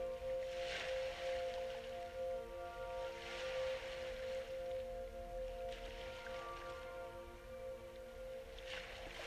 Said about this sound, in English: Let the ocean waves wash over you like drops of salt water.